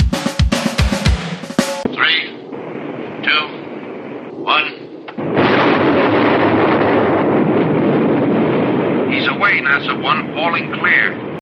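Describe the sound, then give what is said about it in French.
A drop sequence of an X-15 rocket plane from a 1961 film: a few sharp clicks and muffled radio voices, then a loud, steady rocket engine roar suddenly ignites and keeps thundering while voices cut in over it. “en illustration sonore, je vous ai mis une petite séquence de largage tirée du film X-15 de 1961”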